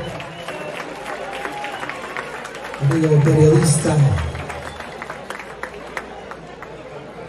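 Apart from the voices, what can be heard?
audience applause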